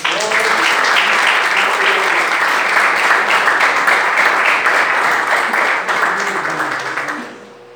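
An audience claps in praise of the Lord Jesus in a dense, steady burst of applause lasting several seconds, with a few voices mixed in, before the clapping tapers off and fades out at the end.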